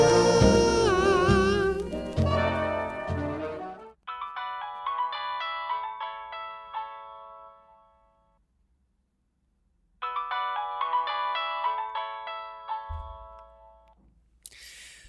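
signal or alarm, mobile phone ringtone

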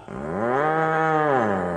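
animal, cow mooing

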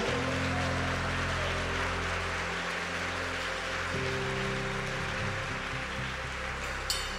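crowd, audience applauding

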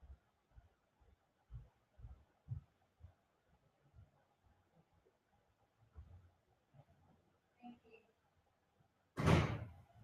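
household object, door opening and closing

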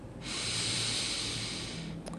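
human body sound, deep inhale

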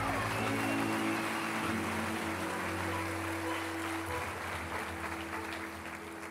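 crowd, audience applause

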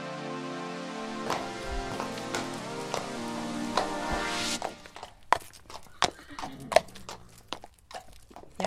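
animal, horse walking

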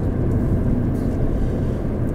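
vehicle, car driving

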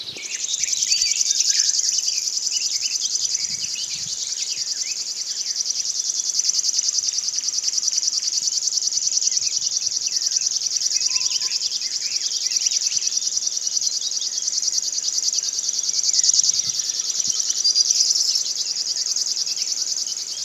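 bird, river warbler song

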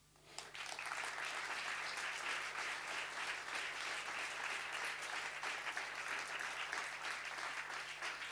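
crowd, audience applause

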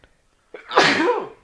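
human body sound, sneeze

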